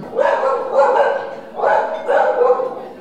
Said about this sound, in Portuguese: Aí, ó, falamos do cachorro latindo pra parede aí.